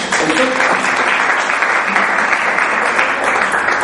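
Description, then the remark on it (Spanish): A crowd claps steadily, a dense, loud wash of applause holding even for nearly four seconds, with a faint voice briefly audible near the start. “Vamos a dar una aplauso a ellos.”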